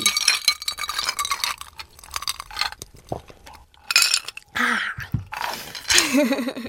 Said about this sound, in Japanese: じゃあもう早速、はい、私たちの地元熊本の高橋酒造の米焼酎白竹城で乾杯しましょう、はい、乾杯乾杯